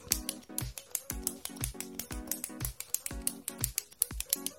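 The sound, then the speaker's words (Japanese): Rapid, rhythmic clicking of a ballpoint pen, crisp, repeating steadily with a few quick double clicks and no voices. “えー、まあちょっとね、あとはこういうボールペンの音。”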